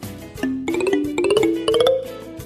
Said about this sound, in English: Remember to turn the page when you hear this sound.